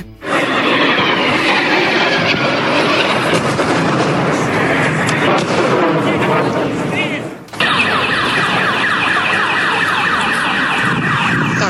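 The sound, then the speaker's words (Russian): Explosions boom through a city-centre street, with something burning and rockets passing, amid a loud, unbroken wash of noise and wailing car alarms, with a brief break partway through before the chaos resumes. “Взрывы, взрывы, взрывы в центре города Найвазовского.”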